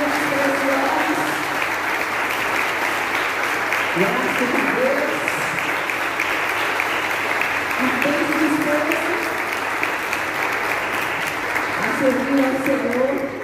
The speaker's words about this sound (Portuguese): Hoje é dia dos diáconos, né, gente? Vou pedir para todos ficarem de pé, todos os diáconos. Glória a Deus. Que a igreja possa aplaudir a cada